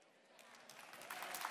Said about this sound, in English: Listen, don't, don't applaud me.